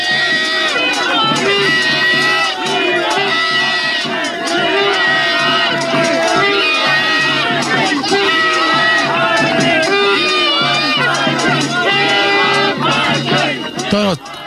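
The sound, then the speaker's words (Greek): A large protest crowd outside the town hall chants the slogan "We want parking" in unison, loud and steady for the whole stretch, with many overlapping shouting voices and a brief louder burst near the end; one person chants "We want Pissy Club". “οι πιο πολλοί τώρα, δηλαδή η λαοθάλασσα, οι πολίτε λένε We want parking, we want parking, και έχει τώρα έναν, έναν δηλαδή, και να λέει We want Pissy Club, we want Pissy Club.”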